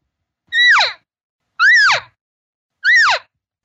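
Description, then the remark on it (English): Three short, evenly spaced elk calls imitated by a human voice or a call device: loud, high nasal mews that rise and then slide down in pitch, with brief silences between them. “in other words, if you hear them all of a sudden do this,”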